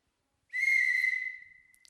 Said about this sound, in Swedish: En visselpipa.